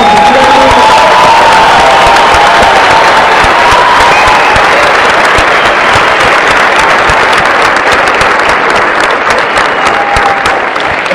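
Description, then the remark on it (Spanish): A crowd applauds loudly and steadily for about eleven seconds, dense clapping mixed with cheers and a few high whoops rising above it, with no pause in the noise. “Denle un aplauso para que sus abuelos sepan que rompan”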